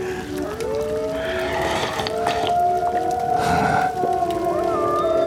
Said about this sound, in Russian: Волки, что ли? Че, прям под окнами?